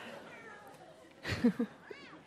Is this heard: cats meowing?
yes